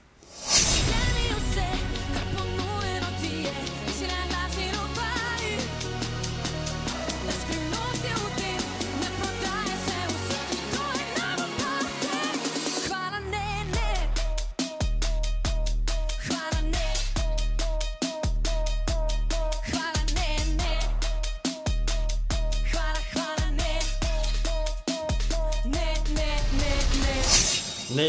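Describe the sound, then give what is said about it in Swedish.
A pop song, written by its female singer together with a Slovenian DJ, plays loudly with steady full-band music; midway it shifts into a punchy beat with regular heavy bass thumps and a bright synth line. No talking over it. “Låten har hon skrivit själv tillsammans med den slovenska DJn”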